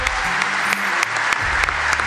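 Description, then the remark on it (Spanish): Steady, dense applause from a crowd for a speech by Axel Kisilov, continuous clapping that holds at an even loud level throughout with scattered sharper claps standing out, and some low rumbling underneath. “Sostenidos aplausos para el discurso ejemplar de Axel Kisilov.”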